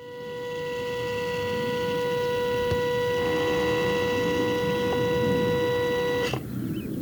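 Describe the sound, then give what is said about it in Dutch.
An automatic CO2 flux chamber, a plastic half-dome that measures CO2 produced in the soil, opening: a steady mechanical motor whine holds for about six seconds, then cuts off with a soft clunk as it finishes moving. “En als er eentje open gaat, dan klinkt dat zo.”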